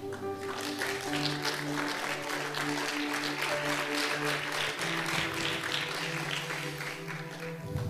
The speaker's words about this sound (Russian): Ну что вы, если хлопали, давайте хлопать.